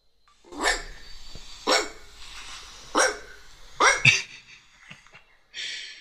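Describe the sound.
A person imitates a dog barking, giving four or five sharp bark sounds spaced about a second apart, with no talking in between.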